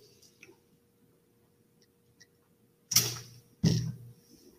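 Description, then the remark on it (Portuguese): Two quick gulping sounds about a second apart as someone swallows sips of water, with faint small clicks and otherwise near silence around them. “Deixa eu beber um gole de água que falar bastante e deixa a garganta seca.”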